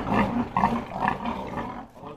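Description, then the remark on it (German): Many sows squeal and grunt together in a long barn building after its door is opened, expecting to be fed, a loud, dense chorus of overlapping cries that keeps going without a break. No one speaks. “Und dann wurde es plötzlich sehr laut. So, die denken jetzt, sie kriegen was zu fressen.”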